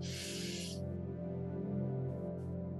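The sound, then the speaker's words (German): A deep, breathy, hissing inhale through the nose during a guided breathing exercise lasts under a second, then fades, leaving a steady, soft tonal drone humming alone in the background. “Und jetzt atmen wir noch einmal tief durch die Nase ein”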